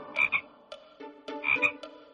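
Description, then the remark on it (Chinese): Frogs croak in two loud, bursting clusters about a second apart, each a rapid ripple of raspy calls with a bright whistling edge, with softer croaks trailing between them and no talking. “九百九十九个青蛙兄弟一起喊道”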